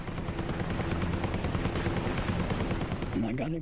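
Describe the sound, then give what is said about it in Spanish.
The guns of a 2,000-horsepower Hellcat fighter fire at a Japanese Zero in a loud, continuous rapid rattle for several seconds over a steady low engine drone. A wavering, rising-and-falling tone emerges near the end. “Hábilmente, Duncan alinea el tiro y dispara al cero.”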